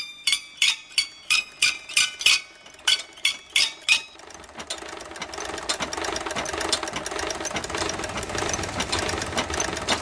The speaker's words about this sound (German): Das ist das Geräusch, das mich zehn Jahre lang bei meiner Arbeit begleitet hat. Es handelt sich um den Baustellenlift am Chor des Ulmer Münsters.